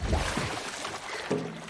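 Sloshing water splashes as someone, pulled by another person, hauls themselves out of a pool, with short breathy vocal sounds near the start and again toward the end.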